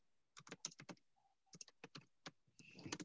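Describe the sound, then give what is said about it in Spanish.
Typing on a computer keyboard to search on Google: a quick, uneven run of a dozen or so crisp key clicks, fairly loud, with a short pause midway and a denser clatter at the end. “Mira, vamos a googlear un poquito.”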